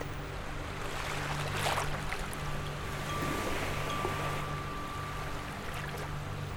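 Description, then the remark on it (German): Steady, rushing ocean surf mixed with wind, a continuous broad wash that swells slightly now and then, with a faint low drone underneath and no voices. “Das Meer, der Wind, das Rauschen und die Wellen – All halt, das ist immer da.”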